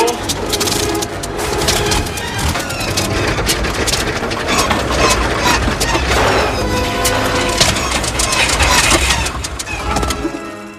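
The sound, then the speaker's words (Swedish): Loud, dense roar of an aircraft's propeller engines straining and sputtering as they stop one after another while the plane heads toward a cliff, a rough mechanical churning with whining overtones that stays intense throughout. “De håller på och åker mot en klippa så hör man ju propellerna, de st- propellermotorerna stannar ju en efter en.”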